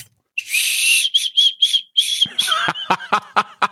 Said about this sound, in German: Das ist eine Chubba chubs Pfeife! Das ist kein Joke! Das ist eine Pfeife als Lutscher!